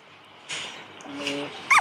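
Puppies whimper close by: a soft drawn-out whine in the middle, then a sharp, high-pitched yelp at the end over faint background hiss. No one speaks.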